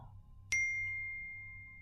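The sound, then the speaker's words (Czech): A single bright, bell-like text message notification ding from a new phone rings out clearly and lingers in a long, slowly fading tone over a faint low hum, with no talking. “Obzvlášť, když mi pár měsíců na to přišla zpráva na můj nový telefon, která zněla nějak takto.”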